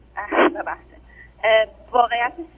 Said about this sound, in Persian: خب آقای دکتر شما درست صداتون رفت باز دوباره این نشون میده شما فاصله میگیرید از تلفن